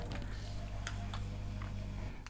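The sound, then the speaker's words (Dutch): A wall clock ticks with sharp, fairly soft clicks at a steady pace over a constant low hum, with no one speaking. “ik moet deze klok eigenlijk wegdoen.”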